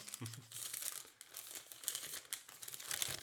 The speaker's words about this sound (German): Raschel, raschel, ja, Ja, genau, einmal Ja, Halleluja, auf der Quittung steht keine Uhrzeit drauf.